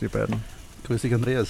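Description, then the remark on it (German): Sausages sizzle on a grill at a sausage stand as a steady, soft crackling hiss in the background, running under voices exchanging greetings throughout the short moment. “man hört das wahrscheinlich eh im Hintergrund, das Brutzeln der Würstel”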